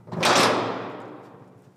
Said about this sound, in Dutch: een enorme stalen deur